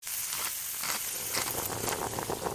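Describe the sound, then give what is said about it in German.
Banana pancakes made without sugar sizzle in a frying pan: a steady, bright hiss flecked with tiny crackles and pops, holding an even loudness throughout with no voices. “Also ich mag ja süßes Frühstück total gerne und deswegen probiere ich heute ein neues Rezept aus und zwar Bananenpancakes mit Bananen drin ohne Zucker.”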